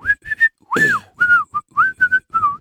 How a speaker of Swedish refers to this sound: plockar mina grejer och fortsätter vissla och går bara